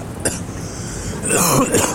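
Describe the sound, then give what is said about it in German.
A loud chesty cough: a short rough burst, then a longer phlegmy hacking that stretches over the last second, with no talking. “Aber Räuspern ist das ja gar nicht, das ist ja eher so Brockenhusten, ne?”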